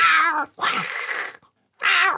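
A tomcat meows loudly three times in quick succession. The middle call is longer, rougher and more drawn-out, and the last is a short, clear, high-pitched mew. No one speaks.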